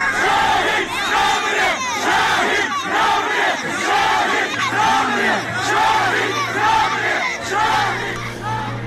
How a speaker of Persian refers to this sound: در مراسم تشییع پیکر تاهر احمدی در پیرانشهر که همسرش با بهترین لباسی که داشته رفته بالای خودرو ایستاده و همراه با پسرش و مردم داره فریاد میزنه شهید نمیمیره